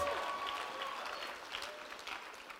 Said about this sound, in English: Come on, don't give God a sedated clap right now. Come on, if we're going to clap, let's give Him our everything in faith.